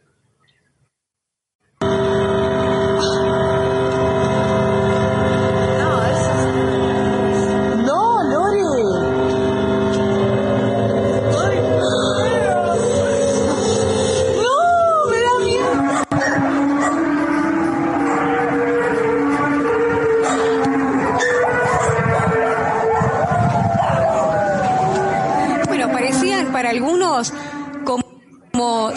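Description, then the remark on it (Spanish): Loud, eerie metallic skyquake sounds: sustained droning tones with wailing, siren-like pitch glides that rise and fall repeatedly, filling nearly half a minute without pause. “Eh, eran unos sonidos como metálicos, como decían ahí, como sirenas, y esos se conocen como skyquakes, terremotos de, de aire, mm, ¿cierto?”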